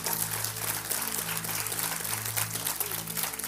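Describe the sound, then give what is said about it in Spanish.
An audience applauds with dense, steady clapping that fills the whole few seconds, and a low sustained hum runs underneath. “No, si le va a aplaudir, apláudale bien porque tiene que ser bueno.”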